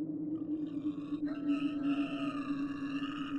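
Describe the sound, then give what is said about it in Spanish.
A deep, raspy, pig-like squeal with a demonic edge comes from undergrowth after a stone is thrown into it, held as one continuous cry for several seconds, loud, with a sudden break in tone partway through and no talking. “Era como el chillido de un cerdo, pero más rasposo y grave, casi demoníaco.”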